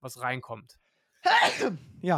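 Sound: sneeze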